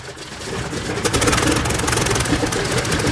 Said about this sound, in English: Planes of Zintaurus, start your engines.